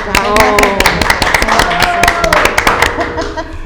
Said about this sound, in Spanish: y le vamos a dar un aplauso.